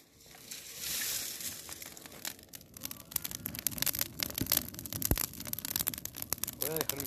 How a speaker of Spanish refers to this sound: ¿Viste el ruido que hacen las hojas? Trae, un pedazo, una ramita de hojas de esas verdes.